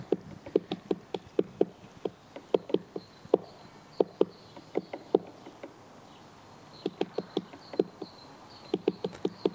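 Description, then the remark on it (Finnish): A great spotted woodpecker taps on wood with crisp, irregular knocks in loose bursts and short pauses between them, over a quiet outdoor background. “käpytit, käpytikat koputtelee, niin kuullaan sitten se ero, mikä niin. rummutuksen ja koputtelun välillä on, jos sellainen ääni sieltä löytyisi.”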